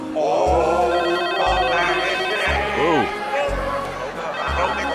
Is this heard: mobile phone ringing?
yes